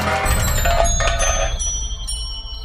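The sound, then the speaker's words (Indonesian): A metal cooking pot lying on the floor of a dark back kitchen of a house is tripped over by someone's foot and clatters loudly on the hard floor, a burst of bright metallic clangs with a ringing tone that slowly fades over a couple of seconds. “Kaki Doni tersandung panci yang ada di lantai.”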